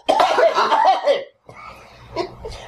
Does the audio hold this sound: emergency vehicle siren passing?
no